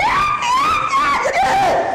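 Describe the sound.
A voice mimics a girl's scream: a sustained, high-pitched wavering shriek lasting about two seconds, loud, with a brief dip and break midway before it carries on.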